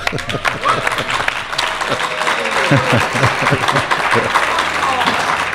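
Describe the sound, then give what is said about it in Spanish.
An audience breaks into steady applause for a speaker who talked about Egyptology, a dense wash of many hands clapping at a fairly loud, even level for several seconds, with faint voices mixed in beneath the clapping. “Yo creo que se merece un aplauso.”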